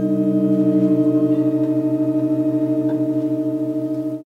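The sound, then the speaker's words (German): A steady, sustained chord of organ pipe tones; about a second in, one low note (G sharp) drops away as a seven-note chord changes to a six-note chord in the 15th sound change, leaving six notes droning evenly with a faint pulsing until an abrupt cutoff. No talking. “Da wurde nämlich aus einem Siebenklang ein Sechsklang und das hat sich folgendermaßen angehört.”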